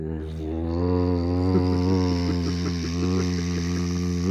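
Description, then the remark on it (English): A voice imitates a loud computer fan with a steady, droning hum held for several seconds, a strong buzzing tone that stays level with faint wavering. “Who just turned on the bathroom exhaust fan? Oh, that's the computer.”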